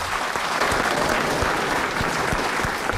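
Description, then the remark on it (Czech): Steady audience applause fills the whole stretch, a dense, even wash of many hands clapping at a constant loudness with no voices standing out. “Náš potlesk vyřídím, doufám, že nebrzo.”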